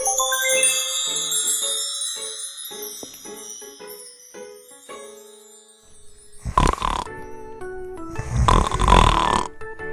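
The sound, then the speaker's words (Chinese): A light tinkling musical passage fades out, then two loud, rough snores follow, each a harsh rasping rumble lasting about a second, with a short pause between them. “你的身边有一个喜欢打呼噜的朋友吗？”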